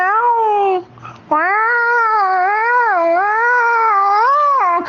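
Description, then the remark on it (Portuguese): A voice imitates a young female house cat in heat caterwauling: a short wavering yowl, a brief pause, then one long, loud, drawn-out moaning howl that rises and falls in pitch, alone. “A mais nova cerola mesmo, bicho, era uma viçadeira, que era uma coisa de louco. Quando viçava, ficava”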